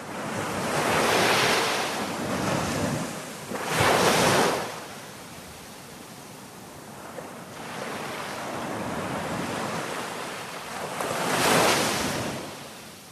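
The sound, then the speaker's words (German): Mediterranean Sea waves wash onto the coast of Sardinia, Italy, in broad, rolling surges, swelling loud around four and twelve seconds, with a steady hiss of surf and some wind in between. No voices. “Da merkt man richtig das Meer.”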